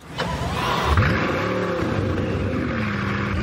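The 8-litre W16 engine of a 1500-horsepower grand touring sports car roars as it is started, its pitch sweeping up in a quick rev before settling into a loud, steady, rumbling drone with no voices.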